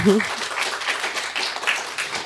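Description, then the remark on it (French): Audience applause, a dense, steady wash of many hands clapping that carries on for a couple of seconds, with a brief voice heard at the very start. “Je crois qu'on peut applaudir.”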